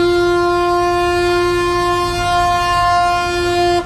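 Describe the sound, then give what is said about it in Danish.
The Oslo boat, a ferry, blows its horn in one long, loud, steady blast for nearly four seconds, a rich droning tone that cuts off abruptly at the end, with no voices. “Sådan noget fik Oslobåden til at tude i hornet.”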